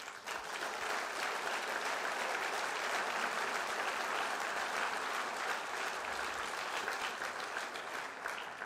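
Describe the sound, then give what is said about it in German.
Roaring audience applause welcoming a special guest in Wiedenest, a dense, steady wash of many hands clapping at once, loud and sustained for the whole stretch without a break or any voices rising above it. “Unser Special Guest, Tosen Applaus.”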